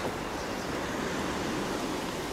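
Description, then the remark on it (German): A steady, broad wash of ocean surf rolls on without pause, a constant hiss of waves on the shore with no distinct individual breakers and no voices. “Das Meer?”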